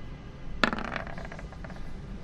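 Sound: dice being rolled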